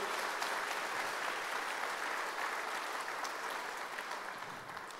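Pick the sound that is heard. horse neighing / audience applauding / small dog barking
audience applauding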